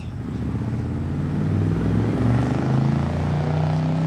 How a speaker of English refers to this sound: Glenda spun her wheels in the driveway.